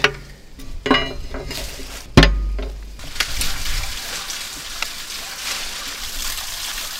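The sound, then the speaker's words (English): A few metallic clicks and rattles as a lock is taken off a two-foot-square steel door leading to a reservoir on a mountain, then a heavy clank as the hatch swings open, followed by a steady wash of running water. “Okay, so I'm going to take the lock off.”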